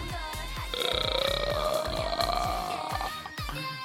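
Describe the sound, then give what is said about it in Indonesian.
A voice imitates the door sound from a song with a drawn-out, croaky low rasp of rapid clicking pulses that rises slightly in pitch, loud, lasting a few seconds. “Itu bukan gelagaan ya guys, itu bukan sendawa, itu kayak itu bunyi pintu itu demonstrasi bunyi pintu.”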